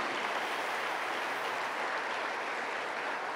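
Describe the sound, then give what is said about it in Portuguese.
Steady, dense applause from a crowd fills the whole stretch, a continuous wash of many hands clapping at a fairly even level with no voices standing out. “Ah, tá ficando bom. Aplauda mais forte.”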